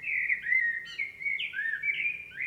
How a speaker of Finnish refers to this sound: Moni valvoo nytkin rastasta kuunnellen,